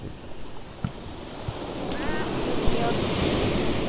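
Ocean waves at the Hayama seaside wash steadily onto the shore at dusk in a continuous broad rush, with a few soft thumps and some wind buffeting the microphone; no voices are heard.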